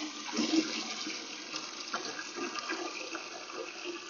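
Water runs steadily from a turned-on tap into a watering can, a continuous hissing, splashing rush at moderate loudness with no talking.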